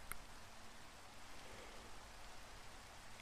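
Steady, soft rainfall hisses evenly throughout, a constant wash of drops with no breaks or distinct patters, fairly quiet and with no voices.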